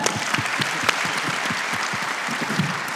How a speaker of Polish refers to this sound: Wielkie brawa dla